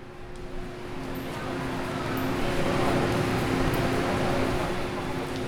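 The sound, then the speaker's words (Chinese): Steady mechanical rumble of a train pulling into a station, heard from the platform while waiting, with a low droning hum running throughout and the overall noise slowly swelling louder before levelling off. “但是我今天要跟你分享的是关于火车的声音”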